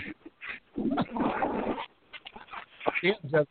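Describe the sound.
A dog whimpers in a few short, high, wavering whines, mixed with muffled voices and a stretch of rough background noise.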